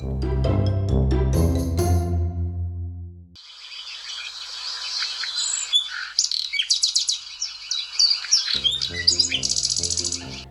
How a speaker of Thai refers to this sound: เสียงนกร้องปลุกให้เขาตื่นขึ้นมาก่อนพระอาทิตย์ขึ้น